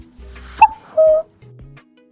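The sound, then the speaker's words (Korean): Singer Sunmi mimics a bird call with her voice in a radio studio, a couple of short whistled, tonal hoots, the second note longer and steady, followed by a lower hum, fairly loud. “저는 그날 스튜디오에, 야, 이 새가 갑자기 날아 들어왔나? 할 정도로 선미 씨가 너무 똑같이 흉내를 내주셨죠.”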